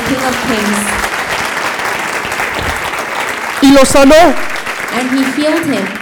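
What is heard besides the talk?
audience applause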